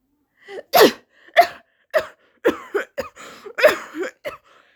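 Two people cough in a ragged series of short, sharp bursts, one after another and sometimes overlapping, fairly loud with brief gaps of silence between them.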